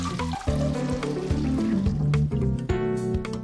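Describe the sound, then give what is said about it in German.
Water draining off soaked soybeans in a steady pour, with gurgling, resonant tones that shift in pitch as the liquid runs out. No one speaks. “Ich lasse das Wasser auch ab.”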